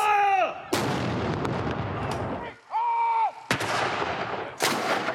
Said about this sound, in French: Ce midi, aux quatre coins du Royaume-Uni, des coups de canon retentissent.